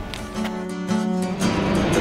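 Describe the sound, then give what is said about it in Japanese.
A loud, steady engine roar fills the scene during a live broadcast, a low droning rumble with a whining hum, as an airplane passes very close, right overhead. “こんなに飛行機の音が入る中継も珍しいですよねめっちゃ近いですね真上ですね”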